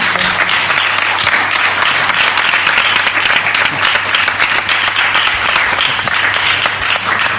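audience applause

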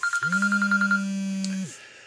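phone ringtone

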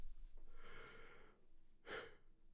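yawn

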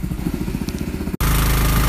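boat motor running

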